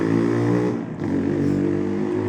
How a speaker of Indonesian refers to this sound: ada dewe ngene iki nek ono motor lewat